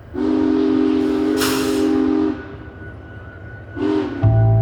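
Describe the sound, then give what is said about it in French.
A train whistle gives a long, steady blast with a burst of steam hiss, then a shorter second toot before a low rumble sets in as the prison train carrying Al Capone pulls away from the station at 11:30 p.m. No one speaks. “Anonyme sur le quai, oublié de la presse et de sa hiérarchie, Elliot Ness est là pour voir partir le convoi pénitentiaire.”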